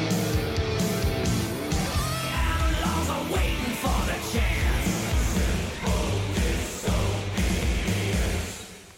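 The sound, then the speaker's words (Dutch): A loud, dense hard rock passage with distorted guitars, pounding drums and a raspy yelled vocal, playing continuously at full volume before easing off at the very end. “Nee, je, ik wilde even iets van de muziek ook nog laten horen.”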